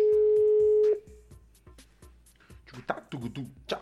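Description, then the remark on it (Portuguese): A phone line rings out as a host calls a listener during a live broadcast, with one steady, fairly loud ringback tone lasting about a second, followed by a soft rhythmic ticking and then people talking. “Você manda uma mensagem aqui no nosso telefone e eu ligo para você no ao vivo.”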